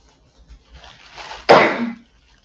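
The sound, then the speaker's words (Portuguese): A person coughs and sneezes: a rising, breathy intake of air ends in one sudden, loud, explosive burst that fades over about half a second; no one speaks. “Uma hora eu tossi, a outra eu espirrei.”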